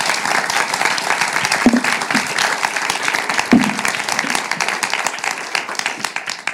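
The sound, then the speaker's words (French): Sustained audience applause, a dense steady wash of many hands clapping at an even loudness for several seconds, with no speech over it. “Alors, avant toute chose, je pense qu'on peut les applaudir et les remercier pour ces beaux échanges.”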